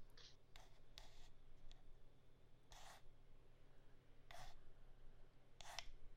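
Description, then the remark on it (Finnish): Faint, brief swishing sounds from a pinhole camera, five or six soft bursts at irregular intervals over a quiet, steady low hum, with no talking. “Tämä on tämmöinen suhin.”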